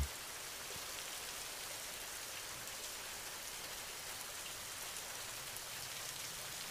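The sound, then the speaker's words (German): Gentle rain falls steadily, a soft continuous patter of drops with an even, unchanging hiss throughout. No voices, just the quiet wash of rainfall. “Und nimm den Rhythmus der Regentropfen wahr.”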